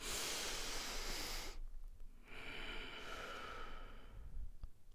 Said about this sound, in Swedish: Nej, så alltså vi kan ju testa det nu. Om vi bara tar ett mm. andetag nu och bara andas in djupt. Alltså full. Full bara.